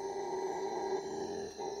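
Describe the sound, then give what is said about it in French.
A large male howler monkey, just waking, gives a deep, droning rumble that holds steady for nearly two seconds, a low guttural growl with strong harmonic bands and no other voices. “Doucement, une étrange rumeur commence à monter un singe hurleur entame une grave mélopée qui se transforme petit à petit en un grondement.”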